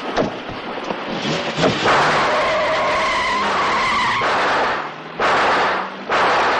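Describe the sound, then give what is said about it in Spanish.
A getaway car speeds off from a jewelry store robbery with loud, sustained tire screeching and a straining engine, intense, as the jeweler shoots at it from the street. A few sharp cracks punctuate the opening moments, and the squeal cuts out briefly before resuming. “El vehículo se aleja a toda velocidad.”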